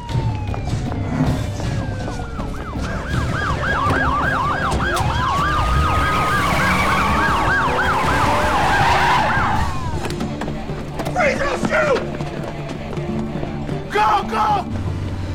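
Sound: police sirens wailing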